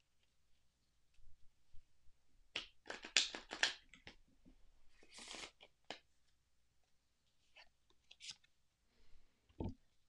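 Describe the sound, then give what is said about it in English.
A Wild Whiskers Oracle card deck shuffled: several quick, papery riffling bursts with soft flicks and taps between them, quiet overall and with no one talking. “I'm going to shuffle the cards and draw.”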